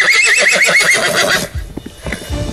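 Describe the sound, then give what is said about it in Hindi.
A horse, Chetak, the horse of Maharana Pratap, lets out a loud, shrill whinny with a rapidly quavering pitch lasting about a second and a half, then gives way to low rumbling thuds and scattered noise. “चेतक वो नालो एडो पार करियो मानो वो कोई घोड़ो नहीं बल्कि बाज हो”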